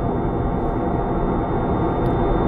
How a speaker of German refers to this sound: Das ist ein direkter Überflug. Genau so fühlt es sich an, als fliege das Flugzeug direkt über meinen Kopf. Was für ein Krach.